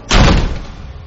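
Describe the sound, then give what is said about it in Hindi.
A single loud slam of a room door in a dak bungalow as four people enter the room, a sharp heavy bang with a booming low thud that rings out and fades over about a second, with no voices. “ऐसे में एक बच्चे को कमरे के अंदर घुसता देख उसके पीछे पीछे उस कमरे में चारों घुसे तो उनके घुसते के साथ ही कमरे का दरवाजा”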